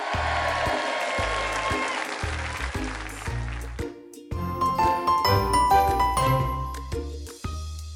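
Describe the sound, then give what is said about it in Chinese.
Steady, loud applause for an emperor penguin father given this year's Super Dad award fills the first half, with a bouncy, rhythmic music jingle thumping underneath; then a bright, tinkling tune takes over as the clapping fades. “获得了本年度的超级奶爸奖，让我们为他掌声鼓励。”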